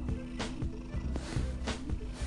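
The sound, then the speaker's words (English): A domestic cat purring, a steady low rumble with rhythmic breathy swells roughly every half second, continuous throughout with no talking. “My cat purring if y'all hear it.”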